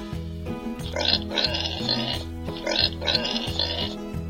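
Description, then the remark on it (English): A pig oinks and grunts in two rough, snorting bursts, each a quick pair of nasal snorts, over a steady, plodding low musical accompaniment. “Oink, oink, grunted the pig.”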